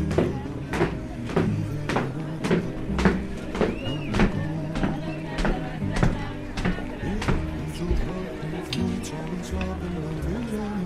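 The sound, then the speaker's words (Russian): Steady, evenly spaced footsteps thud down the narrow, echoing wooden staircase of a typical Amsterdam apartment building stairwell, heading down to a noisy street, with a busy murmur of voices and background noise underneath throughout. “по гулкой узкой деревянной лестнице типичного амстердамского подъезда я спускаюсь на шумную улицу.”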